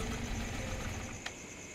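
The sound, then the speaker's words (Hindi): A scooter's small engine idles steadily with a low, rumbling drone and a faint steady whine, plus one brief click partway through, as a man passing on the scooter stops; no one speaks. “दोनों को देख वहां से स्कूटर में गुजरते हुए एक आदमी रुक गई”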